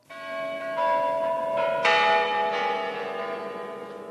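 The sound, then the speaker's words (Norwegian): The clock bells of the Savior Tower of the Kremlin in Russia chime in a bright, ringing sequence on a Saturday, the day before the Russian presidential election. Several overlapping strikes at different pitches sustain and layer over one another, with no voices. “Klokken er slagen for agitasjonen på denne lørdagen som påbyr borgfred. Det er budskapet fra Frelserstårnet i Kreml foran presidentvalget i Russland i morgen.”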